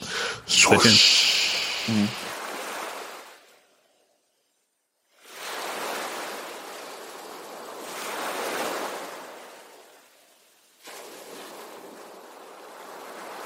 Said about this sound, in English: All right, we're gonna have some aesthetic sounds of waves play us into the next segment